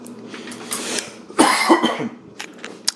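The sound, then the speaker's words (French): A person coughs a few times in quick succession, fairly loud, with a short throat-clearing burst before and some sharp breathy sounds after. No speech. “Excusez-moi, j'étais en train de tousser.”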